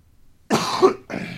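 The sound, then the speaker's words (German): Two harsh, raspy, painful coughs in quick succession, fairly loud, the first longer and rougher than the second, with no talking around them. “Ach, der Husten tat jetzt weh.”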